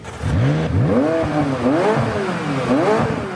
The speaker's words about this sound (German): vertikal nach unten und kann mir auch bei Regen und schlechtem Wetter und geschlossenem Dach den wunderschönen Motor- und Auspuffsound ins Auto holen. Deswegen nenne ich es immer die Soundtaste. Es ist was für Genießer.